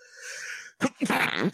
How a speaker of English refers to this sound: oh, sorry, listeners. Bless you. Um, wow. Geez, yeah, that was unavoidable. Oh, here comes another one.